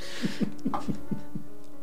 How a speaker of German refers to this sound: Wer da so lustig ins Mikrofon hinein hustet, lacht, ähm, äh, äh, kennt sich sehr, sehr gut mit dem Thema aus, das wir äh, heute beackern möchten, nämlich Trash.